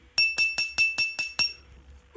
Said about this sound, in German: immer wenn ein Trottel ans Glas klopft, dann muss, müssen Braut und Bräutigam sich küssen. Das kenne ich noch von, von Hochzeitsfeiern, auf ja, denen ich war.